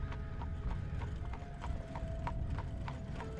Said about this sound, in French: Elle avait reconnu, du fin fond de sa mémoire, le son d'un barlot qui s'amenait dans l'entrée. Elle savait ben trop qui c'est qui était sur ce barlot-là.